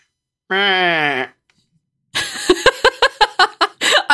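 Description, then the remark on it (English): A person imitates an angry goat with a sustained, nasal bleating cry, then follows with a burst of harsh, rapid, breathy pulses, fairly loud. “I can't do angry goat noises.”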